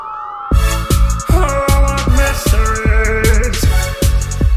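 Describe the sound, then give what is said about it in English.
Techno track built on whale song: a steady, punchy kick drum thumps beneath long, wailing gliding tones and bright hissy textures, loud with no voices. “But first, if you've never heard whale song techno, you're gonna love this.”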